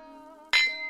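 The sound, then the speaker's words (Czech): Two glasses clink together once in a toast, a sharp, bright ring about halfway through that lingers briefly over a steady low hum. No one speaks. “Na zdraví a užijte si tuhle epizodu.”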